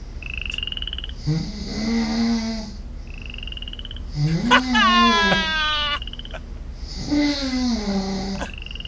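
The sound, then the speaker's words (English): A frog croaks in three long, drawn-out calls spaced evenly a couple of seconds apart, each with a buzzy, wavering pitch, and short high chirps fill the gaps between them. “my snores are oh perfectly timed with that frog.”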